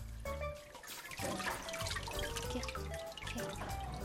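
Water splashes and drips steadily from a papermaking mould being gently lifted to drain after paper pulp has been spread evenly over it, a busy patter of droplets with brief trickling runs, fairly loud and continuous with no talking.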